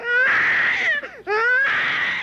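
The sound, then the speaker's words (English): A recording of an infant girl wailing loudly, two long, strained cries separated by a brief gasping breath, with no other voices. “Every year for the last 13 years, I've been presenting the story and sound of the growth of my niece.”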